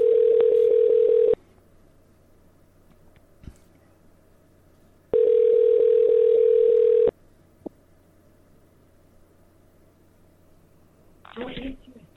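A telephone line tone after a hang-up sounds in two long, steady, buzzing bursts separated by a few seconds of quiet, with a brief muffled rustle near the end.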